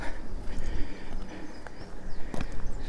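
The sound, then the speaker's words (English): A nodding donkey oil pump works outdoors at Kimmeridge well site, pumping oil as it has since 1959, giving a few sharp mechanical clunks and creaks at an unhurried pace over a steady, breezy background hiss. “I immediately come across Kimmeridge well site, where a nodding donkey oil pump has been pumping oil”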